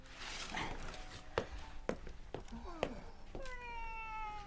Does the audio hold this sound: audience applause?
no